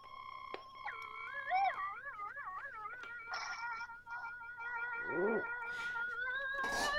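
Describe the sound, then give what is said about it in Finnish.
An eerie theremin-like synthesizer warbles and slides through wavering pitches over steady high drones, with a swooping, bending tone midway and a rising burst of noisy sound at the end. No one speaks. “Vähän taas Halloween menoa, tiedäksä, niinku... Teremin soundi.”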